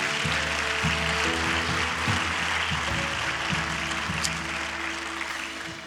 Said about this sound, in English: We can clap for these people one more time. That's awesome.